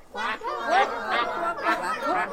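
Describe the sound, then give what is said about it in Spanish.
A person imitates a duck with about five quick, nasal quacking bursts in a bouncy rhythm, fairly loud, with no other sounds around. “Y a medida que fueron adentrándose, se encontraron con patos,”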